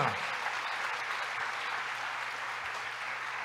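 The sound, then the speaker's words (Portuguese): An audience applauds in praise of the Lord, a dense wash of many hands clapping at even loudness throughout, with no voices standing out. “Glória a Deus, aplauda ao Senhor.”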